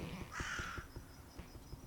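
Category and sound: bird, crow cawing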